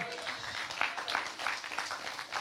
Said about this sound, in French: ouais on peut les applaudir.